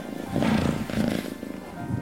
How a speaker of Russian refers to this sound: В печке разгорелся огонь. Кошка устроилась поближе к теплу и замурлыкала.